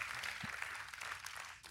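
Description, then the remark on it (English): A crowd applauds God steadily, many hands clapping together into a dense, even wash of sound that holds for the whole moment. “Let, let, let, us us just give applause for this God.”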